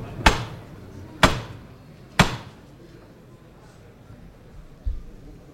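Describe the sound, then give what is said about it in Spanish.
In Seville, a capataz strikes the hammer knocker of a procession float to lift it: three sharp, loud metallic knocks, evenly spaced about a second apart, followed by a softer low thud. A faint murmur of crowd noise sits underneath. “ha gustado el martillo.”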